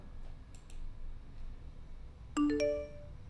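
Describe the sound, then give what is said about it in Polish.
A short two-tone chime of a phone's incoming text message alert rings out once near the end, bright and clear, preceded by a couple of faint clicks over a quiet background. “i od razu słyszysz dźwięk przychodzącej wiadomości.”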